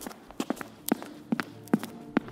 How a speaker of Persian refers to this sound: از طبقه بالا صدای پا میاد خودم رو میزنم به نشنیدن کم کم باور میکنم که توهم صدای پا زدم